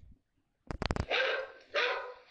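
A loose dog barks: a quick burst of short, sharp yaps, then two longer, harsher barks in a row, loud and aggressive, with no one talking.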